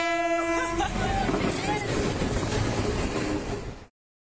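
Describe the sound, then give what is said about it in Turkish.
A train passes, striking a woman's wrist as it goes by, opening with a brief horn blast before a loud, steady roar and rattle of wheels on the tracks, cutting off abruptly. “tren bir kadının bileğine çarpıp geçti.”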